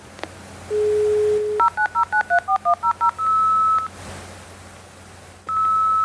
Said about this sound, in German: Dieses für die Älteren unter uns nostalgische Geräusch markiert den Übergang von der analogen in die digitale Zeit. Diese Geräusche waren tatsächlich digitale Datenpakete, die über eine analoge Telefonleitung transportiert wurden.